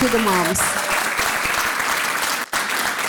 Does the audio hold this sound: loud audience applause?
yes